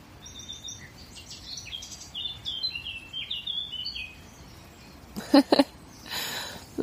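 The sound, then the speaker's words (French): Several birds sing and chirp in a forest in a series of high, quick notes over a low, steady background rumble, followed by a couple of louder rustling or crackling bursts. “T'entends l'oiseau, c'est incroyable.”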